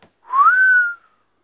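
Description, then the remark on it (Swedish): A single clear human whistle, rising in pitch then holding steady and fading, like a long drawn-out whistle of amazement, heard alone. “Alla som går fram där ska vissla”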